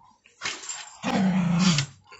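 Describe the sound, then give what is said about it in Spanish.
Dogs growl in two rough bursts, a short breathy snarl followed by a longer, deeper rumbling growl, with no talking. “Ahora los perros se pusieron a huir.”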